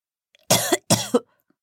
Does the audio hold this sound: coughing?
yes